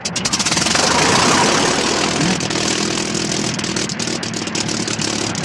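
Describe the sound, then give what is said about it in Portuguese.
A small airplane engine in a film scene drones loudly and steadily, a rough, buzzing mid-pitched roar with a faint rattling pulse, holding almost constant for the whole stretch with no voices. “E eles pegam aquele aviãozinho ridículo do cara.”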